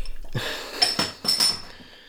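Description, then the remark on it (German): A small metal beer bottle cap falls off as a beer bottle is opened and clinks on a hard surface, bouncing with three or four quick, bright ringing taps, with no voices. “Korken abgefallen.”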